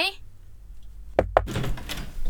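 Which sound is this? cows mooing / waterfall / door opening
door opening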